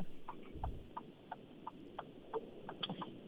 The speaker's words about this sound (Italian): Sentiamo un eh, ticchettio. Sentiamo... Eh, la freccia, sì.